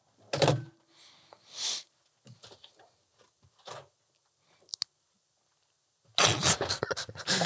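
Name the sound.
door opening and closing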